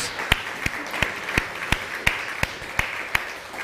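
Applause with about ten sharp, evenly spaced claps cutting through a steady wash of scattered clapping, like a crowd falling into a rhythmic beat. No voices are heard.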